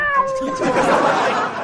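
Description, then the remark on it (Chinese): A cat lets out a drawn-out, wavering meow that rises into a strained, whiny yowl, moderately loud and heard on its own without any talking. “哼，猫咪说怪我喽。”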